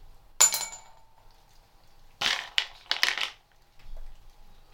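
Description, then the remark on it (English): An almond drops into a glass bowl with a sharp, ringing clink, then rattles and bounces in a quick burst of smaller clinks before settling. Fairly loud, with no voices. “Almond glass bowl.”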